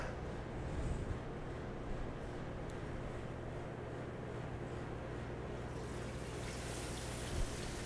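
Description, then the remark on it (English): Food dropped into a hot pan of sesame oil and olive oil sizzles with a steady, crackling hiss that grows brighter and louder toward the end, with no voices. “There's a sizzle, that's what you want to hear.”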